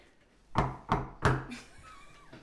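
Three firm knocks on a door in quick, evenly spaced succession, each a sharp hollow thud, followed by a quiet stretch with faint background noise.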